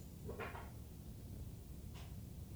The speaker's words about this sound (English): It's like the dryer from the front house. The mic picked that up.